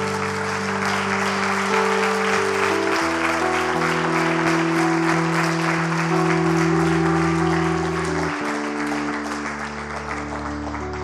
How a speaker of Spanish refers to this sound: Levante un aplauso a Dios de alabanza y de adoración.